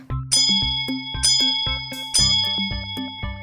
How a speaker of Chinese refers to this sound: 这时，突然有个铃声响起，是小火车卡尔发出来的。